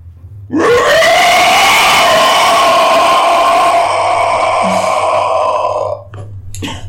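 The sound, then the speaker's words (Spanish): A person vocally imitates the roar of a huge river creature, bigger than an orca, standing on the riverbank: one loud, sustained, raspy bellow lasting about five seconds, then cutting off abruptly. “Ven cómo sale, se planta sobre la orilla, voltea a verlos y hace un rugido.”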